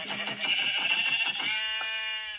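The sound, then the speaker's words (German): A single loud video game sheep bleat: a wavering, quavering cry that steadies into a held tone before cutting off, with no talking over it. “Ah, da hinten ist schon ein Schaf.”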